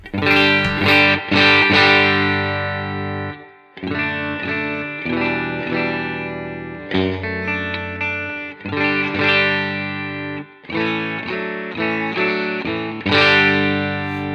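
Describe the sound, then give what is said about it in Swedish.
An electric guitar played on its bridge pickup with a clean tone, strummed chords ringing in bright, sustained phrases with short pauses between them. No voices, just the guitar alone. “Eh, men eh, vi börjar med stallmicken då på eh, rent helt enkelt.”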